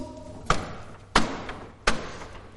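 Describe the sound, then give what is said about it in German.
Three heavy, evenly spaced knocks on a door, each a dull thud with a short resonant tail. They're loud, with no voices, just a faint background hum. “wenn es an der Tür klopft”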